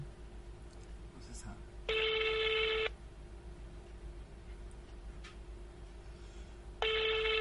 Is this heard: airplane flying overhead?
no